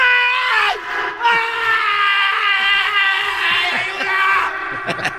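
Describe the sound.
A man lets out a long, loud, strained scream that holds for several seconds, wavering in pitch, with a few brief knocks and shuffles near the end.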